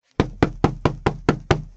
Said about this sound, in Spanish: Sujétame la silla. Voy a golpear el techo con la escoba.